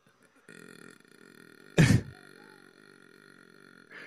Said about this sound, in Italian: Beh, senti la, l'uniformità. Uniformità, sì. secondo me è questo è il punto anche, cioè dovrei giudicare anche la qualità del rutto in lungo